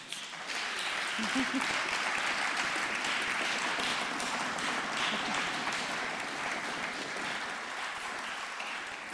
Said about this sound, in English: I'd like to invite the shortlisted writers to the stage. Maybe you could clap them as they come up.